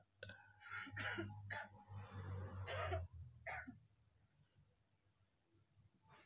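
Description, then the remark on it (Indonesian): A person coughs several times in a row, harsh bursts spread over about four seconds, with a low steady hum underneath before things fall quiet. “kayaknya batuk sih referensinya ke covid deh ya.”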